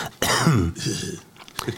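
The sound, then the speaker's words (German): A voice imitates a short, raspy cough from chronic bronchitis, a throaty hacking burst followed by a second rougher exhale and a brief catch at the end. “Und äh, ich habe ja meine äh, chronische Bronchitis, ne, und hustete so einmal vor mich hin so.”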